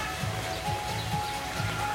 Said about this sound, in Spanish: Ay, puede ser una gota. Sí, es gota. También. ¿Sí? Es agua. Está lloviendo.